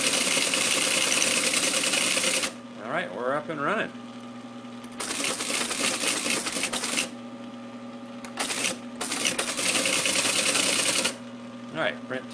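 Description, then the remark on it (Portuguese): Loud mechanical teletype clatter as someone types on the teletype keyboard, in several sustained bursts over a steady machine hum, with a man's voice speaking briefly in the pauses between them. “Agora ele está interagindo pelo teclado, né?”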